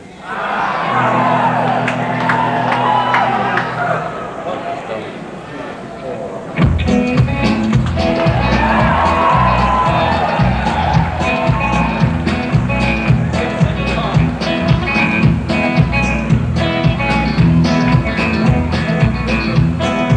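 A crowd cheers and shouts, then a loud live rock band kicks in with driving drums and bass, the audience noise continuing beneath the steady, energetic music.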